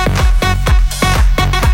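An upbeat pop song plays loudly on the radio station Activa TFM on a Tuesday morning, driven by punchy, booming kick drums on a steady quick beat under bright, sustained synth layers, with no talking over it.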